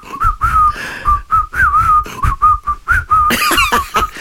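Someone whistles a melody in clear, sustained notes that rise and fall in a tuneful phrase, fairly loud, with soft background noise and no talking.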